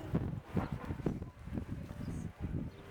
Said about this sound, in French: Et le vent est avec nous.